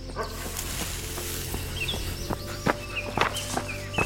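Hurried footsteps of someone running through a forest, with a few short, sharp dog barks breaking through near the end, while faint birdsong chirps in the background.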